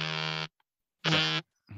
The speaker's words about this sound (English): Is that is that your vibration on your phone? It's my ring doorbell.